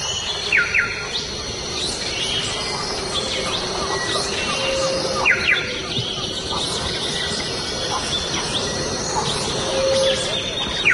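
A troop of monkeys waking up calls far off in the Amazon tropical rainforest, a steady rumbling chorus beneath sharp repeated bird chirps and whistles. The dense jungle ambience is continuous, with no talking.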